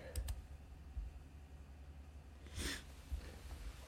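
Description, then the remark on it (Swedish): A single short, breathy nose blow bursts out, with a few faint clicks and soft rustling around it in otherwise quiet surroundings. “Jag måste snyta mig.”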